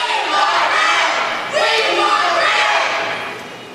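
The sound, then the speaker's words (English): A small group of protesters shouting the chant "We want Rand" for Rand Paul, in loud, overlapping voices, rising in two strained bursts, with no other sounds breaking through. “It's a it's a small group of protesters shouting, "We want, want Rand," Rand, because Rand Paul was not allowed on the main stage,”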